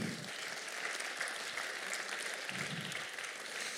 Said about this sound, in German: Also vielen Dank. Schon mal jetzt einen Applaus für die Freiwilligen.